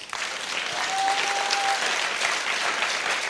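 An audience claps their hands in sustained, dense applause as a clap offering to Jesus during worship, steady and loud throughout with no voices standing out, and a faint thin tone briefly runs beneath it.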